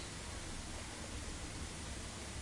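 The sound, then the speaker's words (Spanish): A steady, unbroken roar of airplane engines drones through the cabin on a transoceanic flight, heavy in the low end with a constant hiss on top, never rising or fading over the short stretch. “El ruido de los motores.”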